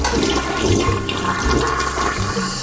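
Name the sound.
toilet flushing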